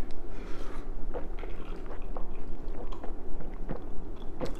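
Someone drinks beer bought at a food court after a toast: a run of wet gulps and swallowing clicks, several sharp moist pops over a steady low rumble, with no talking.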